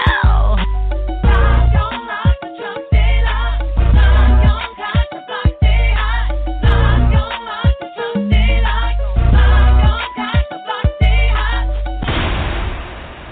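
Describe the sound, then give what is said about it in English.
Loud, bass-heavy electronic music pulses with deep booming hits, building to a final bass drop that ends in a rushing, explosion-like burst of noise. No one speaks. “When that bass drop, when that explosion happens, you know it's something new, it's something brand new.”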